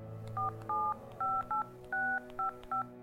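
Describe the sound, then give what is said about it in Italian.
A number is dialed on a mobile phone keypad, with seven short dual-pitched beeps in quick, slightly uneven succession, clear over a faint low hum. “Chiamai Matteo sul cellulare, non lo facevo mai.”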